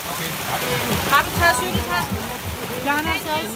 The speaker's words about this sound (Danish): så hopper jeg ind i det rum, hvor at vi kan få lov til at skifte tøj, især fordi der øser så meget ned, som det gør